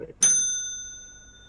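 A single bright bell ding strikes sharply, then its clear metallic tone rings on and slowly fades over a second and a half, alone with no talking.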